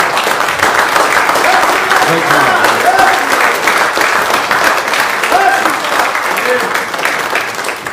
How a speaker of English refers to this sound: give him a clap, a clap of praise.